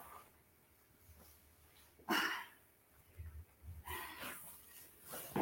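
Puppies chew and gnaw on shoes, with snuffling breaths and two sharp scuffling bursts of rustling amid quieter low rumbling; no one speaks.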